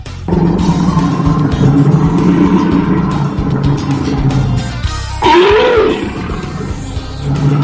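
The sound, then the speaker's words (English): A bear roars, a deep, rumbling growl that continues loudly, with a rising, throaty swell near the end. No one speaks. “I'm going to go with a bear. I would say that you are correct.”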